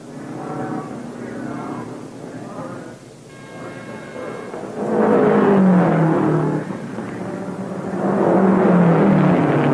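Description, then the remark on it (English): A race car's engine rumbles during a pit stop for refuelling and a tire change, with Lou Moore changing the tires and driver Holland staying in his seat, idling roughly before surging into loud revs twice, the pitch climbing each time as the throttle opens. “Only four crew members, including the driver, are allowed to work on the car.”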